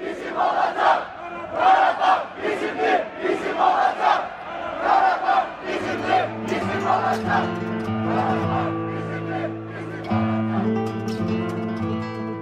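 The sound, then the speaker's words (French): A large protest crowd of French people of Armenian origin, demonstrating their disagreement over a war, chants in loud, rhythmic bursts, then the voices merge into a steadier, sustained chorus of held tones that keeps going to the end. “cette guerre relativement ignorée par les médias a poussé les Français d'origine arménienne à briser ce silence et à manifester leur désaccord, et ce malgré la gravité des enjeux et au risque de leur vie.”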